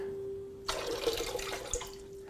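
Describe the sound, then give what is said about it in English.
Water pours into a glass Klein bottle in a steady splashing stream lasting just over a second, with a faint constant hum underneath and no voices. “Well, if we just pour some water in it, then you can see that we're not going to be able to get the air out to get the water in.”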